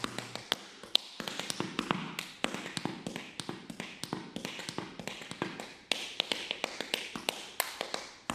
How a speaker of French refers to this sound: les claquettistes et les tap dancers voilà qui ont bien conscience que les claquettes ça fait partie euh, de l'univers de, la musique